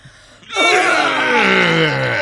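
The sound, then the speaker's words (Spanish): A voice imitates a weightlifter's loud, strained grunt, one long sustained groan that starts abruptly and slowly falls in pitch, forceful with no other talk. “Yo lo que creo es que sea un tipo levantando pesa o, you know, haciendo un ejercicio de eso.”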